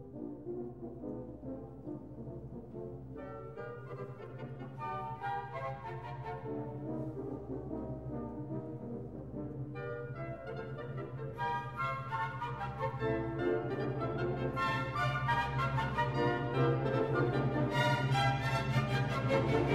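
A full orchestra plays a bold brass fanfare from a Tchaikovsky symphony, the return to its first theme, over a sustained low drone, the sound thickening and climbing in loudness toward a dense, blaring climax.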